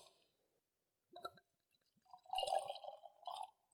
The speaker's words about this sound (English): Okay, let's give some pours.